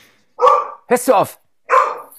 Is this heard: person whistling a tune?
no